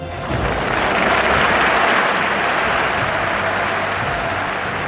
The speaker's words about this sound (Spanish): Hablamos aquí ya en tiempo pasado de la campaña Hecha un capote, pues esta ovación va por todos los que han colaborado.